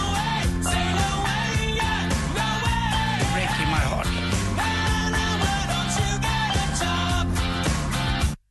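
A loud pop-punk song from 1998 plays steadily, with full band instrumentation and a sung vocal line riding on top, holding an even level for about eight seconds before cutting off abruptly.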